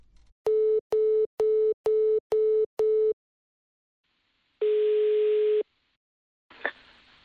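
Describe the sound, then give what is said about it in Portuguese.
After a dropped telephone call, a steady telephone tone pulses six times in quick, even beeps, then sounds once in a longer sustained burst, followed by a brief click-like noise. No one speaks. “Caiu a ligação, foda.”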